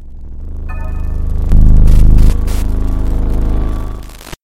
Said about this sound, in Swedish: Plötsligt hördes ett brus i telefonen. Det var som att linjen bröts.